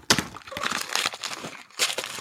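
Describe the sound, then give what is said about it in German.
Tearing and crinkling of cardboard as a cardboard advent calendar door is opened, a burst of sharp rips and crackles followed by fumbling and a final loud tear, with no voices. “dann lass uns das doch jetzt aufmachen hier.”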